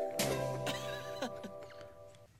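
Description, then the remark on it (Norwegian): A short, loud radio jingle for the garage show on Radio Revolt: a sustained chord of steady tones with a few sharp percussive hits and a brief whinny-like flourish, fading out after a couple of seconds with no voices. “Og så hørte du eh, en kul en i garra-jingle.”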